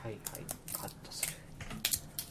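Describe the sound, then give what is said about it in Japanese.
A quick series of crisp snipping and crunching clicks as scissors cut through the soft flat side of a crab leg shell, about eight sharp cracks in an uneven rhythm over quiet background noise. “食べるんだとしたら、柔らかい横面っていうの、はい、横面がすごい柔らかいんで、えー、ハサミでガバッとカットしてください。”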